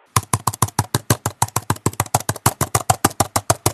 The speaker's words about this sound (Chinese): 啊，我给大家听听这个声音。 您即将听到的是苹果2020款 iPad Pro 妙控键盘的声音。